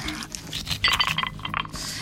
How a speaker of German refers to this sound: Ich habe hier einen Eiswürfel im Glas. Also ohne Gin und ohne Rum obendrauf. Einfach nur mal den puren Eiswürfel im Glas.